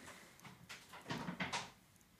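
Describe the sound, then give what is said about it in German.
A door swings shut, a brief rustle followed by a couple of muffled knocks and a soft latch, fairly quiet and with no voices. “jetzt wurde hier gerade, also das muss ich jetzt aber nochmal kurz sagen, jetzt wurde hier gerade ja. die Tür geschlossen, dass man, dass ich, dass mein Gesabbel hier nicht stört”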